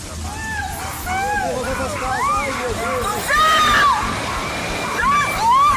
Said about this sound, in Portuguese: existem registros de alagamentos e deslizamentos. E a chuva não para, chovendo intensamente.